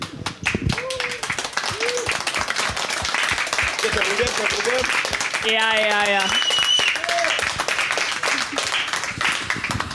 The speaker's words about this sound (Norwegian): i en applaus eh, til bandet.